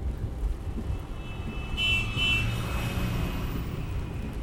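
A truck rumbles past close by on a road, heard from inside a car, its low engine roar swelling and then easing, with steady traffic noise underneath and no voices; rain has just stopped.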